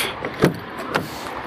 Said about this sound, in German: Zack, Auto auf.